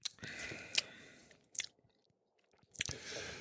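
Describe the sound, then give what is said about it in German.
Wet chewing with crisp crunchy bites as someone tastes food, coming in a few bursts separated by short quiet pauses, with no talking over it. “Okay, wie schmeckt's denn? Gibt's gibt's was Vergleichbares oder schmeckt einfach nur?”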